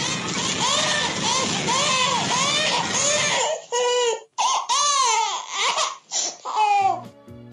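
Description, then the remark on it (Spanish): Baby Smurf, the cartoon baby, wails in high, quavering cries, loud. At first several voices overlap over a busy background, then the sobs come in separate bursts with brief gaps. “Imagínense pitufos muertos, pitufos heridos, el bebé pitufo llorando.”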